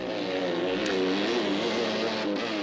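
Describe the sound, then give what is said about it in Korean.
A motorcycle engine drones steadily as the motorcycle leaves, a continuous buzzing hum with a rough tonal edge that stays fairly loud throughout, with no voices. “그렇게 오토바이가 떠난 다음 아버지는 멋쩍어 하시며 들어오셨고”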